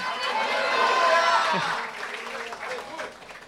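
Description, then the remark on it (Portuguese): A church audience bursts into loud, sustained applause for the Lord Jesus, a dense wash of clapping that swells and then fades after a couple of seconds, leaving scattered claps and crowd murmur. “Será que você pode dar um aplauso ao Senhor Jesus?”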